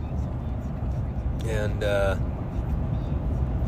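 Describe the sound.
Steady low engine rumble and road drone fill the cab of a pickup truck cruising on a highway in four-wheel drive, with a man's voice briefly speaking over the noise.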